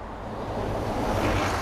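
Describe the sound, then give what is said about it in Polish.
A large bus passes by on a road at a roundabout, a loud, steady wash of low engine rumble and road noise that swells slightly toward the end, with no voices. “I oni mają bardzo fajny, jakiś autobus wielki przejechał.”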